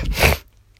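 A single sudden sneeze bursts out loudly and ends within half a second, followed by near silence with only a faint low hum.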